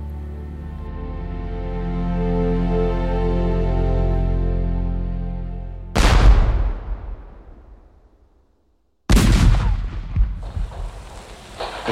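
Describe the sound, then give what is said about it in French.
A low, steady droning tone fills the first half, then two loud, sharp gunshots from Germans firing at lit windows crack out a few seconds apart, each ringing and rumbling away with no one speaking. “Attention, éteignez les bougies, les Allemands tirent sur les fenêtres allumées.”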